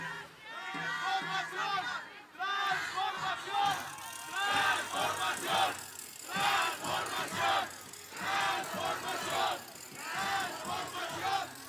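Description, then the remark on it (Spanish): A large crowd in Cuernavaca, Morelos chants the political slogan "Transformación" in loud, rhythmic bursts, many voices shouting together in repeated waves that rise and fall across the whole stretch. “A ver que se oiga fuerte, transformación o corrupción. Transformación. Ese es el grito que se oye en todo el país.”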